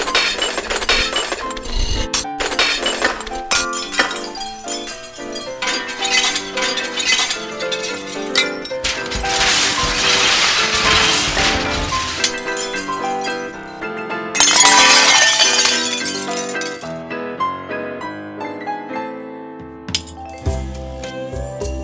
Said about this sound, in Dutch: En zei ik, nou weet je wat, hier heb je drie borden. Uh, smijt je maar mee, scheer erbij. En eh, toen heeft hij ook heel woest drie borden stuk voor stuk kapot op de grond gesmeten.